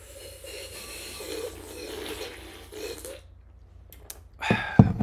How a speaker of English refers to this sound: No, here I'll take a sip, real loud sip, and we'll see if they can decide what water we're drinking.